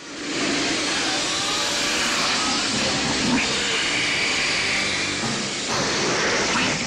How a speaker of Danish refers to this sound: Ja, og de endte med at stå og, og, og simpelthen gøre det med munden, stå og suge ind Nå, i okay, mikrofonen.